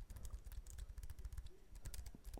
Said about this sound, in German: Sie ist, so sagt der Hersteller jedenfalls, ähm, eine leise Tastatur. Das heißt, wenn ich drauf tippe, mache ich keinen äh, unangenehmen Krach.